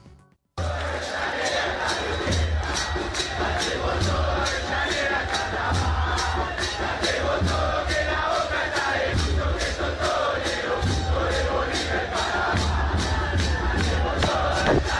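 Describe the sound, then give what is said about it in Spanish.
A large crowd of Independiente de Avellaneda football fans chants loudly and continuously in unison, backed by a steady, driving beat of drums or claps that keeps a regular rhythm for the whole stretch. “A ver, escuchemos a la barra del rojo.”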